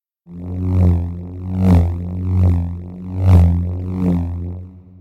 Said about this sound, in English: And here's that same humming loop with a Doppler effect … added to it.